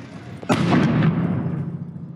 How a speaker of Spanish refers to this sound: Finalmente la protesta llegó al edificio de rectoría. A la entrada principal le prendieron fuego, lanzaron petardos y bombas Molotov.